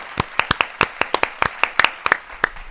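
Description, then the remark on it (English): A short burst of applause from what sounds like just a few people, sharp individual claps landing in a quick, slightly uneven rhythm, fairly loud, with no talking. “Round of applause to you.”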